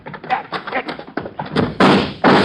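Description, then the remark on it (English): A heavy door slams shut with two loud booming impacts in quick succession as people dive inside to bolt it, following a stretch of hurried, muffled voices. “If it works, we dive for the door and bolt it behind us.”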